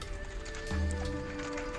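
Horse hooves clip-clop in a steady rhythm as a saddled horse sets off for another town, alongside a brief whinny, set against a low ambient hum. The sounds are moderately loud, with no talking.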